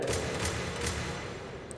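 A door clicks open: a few sharp, dry clicks in quick irregular succession over a steady noisy hiss, followed by a tiny high-pitched tick near the end. No one speaks.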